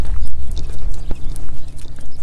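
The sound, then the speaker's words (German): Horses snorting in a paddock while grazing on tall green grass, short breathy bursts mixed with scattered knocks of hooves shifting about, over a steady low outdoor rumble. Nobody speaks. “Ja, mein Weg führt mich gerade an einer Pferdekoppel vorbei. Vielleicht hörst du das Schnauben.”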